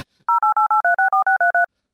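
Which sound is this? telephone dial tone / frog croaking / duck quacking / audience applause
telephone dial tone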